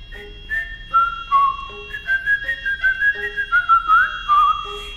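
A playful old cabaret song recording, carried by a bright, whistled melody that bounces through short notes into a long wavering line, with no voices singing along.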